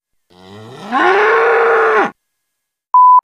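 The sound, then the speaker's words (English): A voice imitates a cow with one long, drawn-out moo that rises in pitch and holds steady for about two seconds, followed after a pause by a short electronic beep. “I'm eating grass. Eating grass? Why? Moo!”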